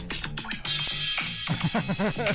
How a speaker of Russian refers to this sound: Сейчас я поставлю подкладку, хорошо? Давайте.